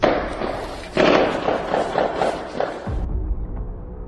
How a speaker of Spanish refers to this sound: Sin embargo, tras esa refriega ingresaron tres elementos militares, quienes realizaron una secuencia nueva de disparos sin justificación alguna.